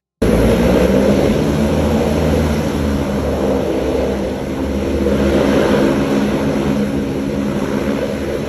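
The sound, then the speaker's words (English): A loud, steady roar of a very big hovercraft's engines and propellers at Cherry Grove Beach, droning without pause, a dense low rumble with a broad airy whoosh on top, holding nearly constant throughout with no voices. “everybody was flipping out because they it showed up in this big. I mean, a stupid big hovercraft, stupid big hovercraft.”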